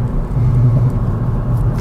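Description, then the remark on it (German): A Mercedes-AMG A35's exhaust burbles loudly as the car accelerates at full throttle, a deep, throaty rumble that pulses unevenly for under two seconds with no voices over it. “Und immer dieses Auspuffbrabbeln. Das klingt richtig echt, weil es ist jedes Mal anders.”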